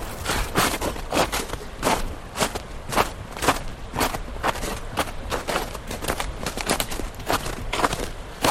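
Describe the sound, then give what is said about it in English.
Crunching footsteps on snow, steady, a continuous run of crisp compressed crunches at a walking pace with no voices. “Footsteps on snow.”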